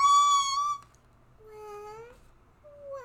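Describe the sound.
A child mimics a baby's crying, acting out the crying of Stan, a character in a story being told, with high, wavering wails: a loud, steady first cry, a softer rising wail after a pause, then a brief cry starting at the end.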